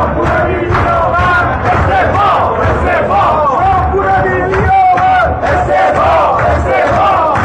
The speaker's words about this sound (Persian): یک روز عادی وقتی در بازار بورس نشستید و مشغول تحلیل فراز و فرودهای بازارید متوجه سر و صدای اعتراضهای کارگزاران و سهامداران بورس میشید